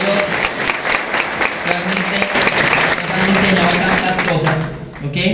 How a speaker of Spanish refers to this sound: para quienes pido un excelente aplauso.